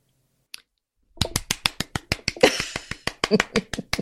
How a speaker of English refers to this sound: I'm clapping. I gave you a little standing ovation. I so agree.